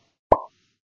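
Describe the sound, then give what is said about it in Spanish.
A single wet, hollow plop made with the mouth, imitating poop dropping into water; short, with a brief resonant tail and silence around it. “Y suena así, cuando cae suena así.”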